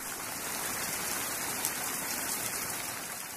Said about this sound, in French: La pluie faisait un boucan d'enfer. Elle mangeait tout, les arbres, les plantes, les maisons, et plus rien ne poussait.